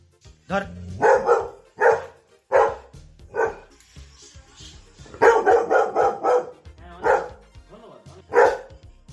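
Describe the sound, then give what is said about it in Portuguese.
The dog Ping Yan, in China, barks loudly in an irregular series, single sharp barks separated by short pauses, with one rapid flurry of several barks in the middle. “Pois é, traduzido chinês, a pessoa falando chinês eu até consigo, mas de cachorro chinês fica mais complicado.”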